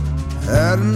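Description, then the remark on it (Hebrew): A cow in a cowshed lets out a single short, low moo, steady and fairly loud at first, then rising in pitch briefly before settling again. “הפרה ברפת.”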